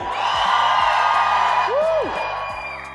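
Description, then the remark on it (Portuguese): A group of voices lets out a loud, sustained whoop together to vote for Harry Potter, a rising and falling holler over dense crowd noise, energetic, lasting a couple of seconds. “Quem acha que é Harry Potter, dá o grito aí.”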